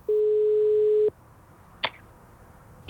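A telephone ringback tone sounds once as a steady, clear one-second beep on the line, followed by near silence and a couple of faint clicks.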